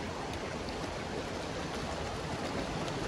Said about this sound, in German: So, dann waren wir beim Wasserfall.